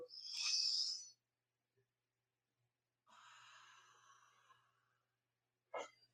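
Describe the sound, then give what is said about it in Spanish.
Deep breaths with no talking as a person inhales from a band held in their hands: a long airy inhale, a pause, then a slower breathy exhale, followed by a quick sharp intake of breath at the end. “Lo que podemos hacer es que podemos poner la banda en nuestras manos y empezar a inhalar incluso con la respiración.”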